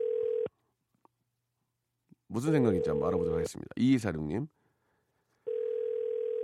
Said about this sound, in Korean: 자 지금 전화 가고 있는데요. 괜찮습니다. 편하게 생각하세요.